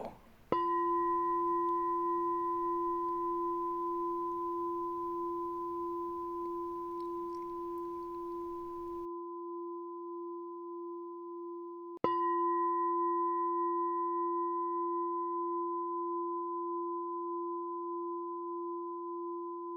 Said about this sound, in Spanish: Tu cuenco está bajo un grifo de agua. A intervalos regulares, una gota de agua sale y golpea el cuenco.